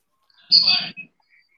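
A sudden shrill squeal of audio feedback, high and warbling like a bird's chirp, lasts about half a second and is followed by a brief softer blip, with no talking.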